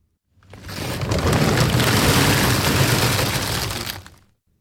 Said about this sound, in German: Das, was du hier gehört hast, war ein Sack voll Kastanien. Immer im Herbst kann man Eicheln, Baumnüsse, Obst und Kastanien beim Wildpark abgeben. Die sehen super aus. Frische, schöne Kastanien, grosse, nicht schimmlig so wie sie sollten sein.